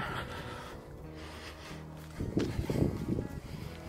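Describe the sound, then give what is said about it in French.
Wind buffets a phone microphone while filming 4K video on phones (an S8 and a Huawei P20 Pro) outdoors while walking, a steady low rumble that swells into louder, gusty bursts in the second half, muffled with no voices. “on marche un peu dans le même trépied, le son pris sur le téléphone il y a un peu de vent, j'espère que ça va pas foutre la merde.”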